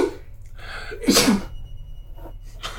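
A single sharp sneeze bursts out midway, fairly loud, after a short intake of breath, then fades into quiet.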